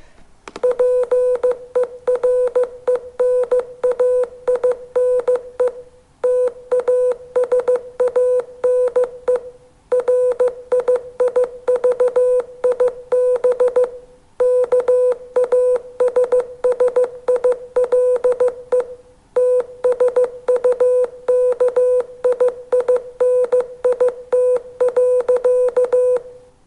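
A steady single-pitched tone keyed on and off in quick short and long beeps, forming a continuous Morse code message with brief pauses between groups, loud and with no talking.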